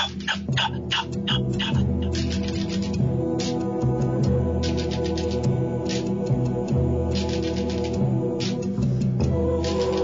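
Stones brought into a recording studio are knocked together by hand as percussion at the opening of a song, giving sharp, dry clicks, rapid at the start and recurring in bursts throughout, over a steady, droning musical backing.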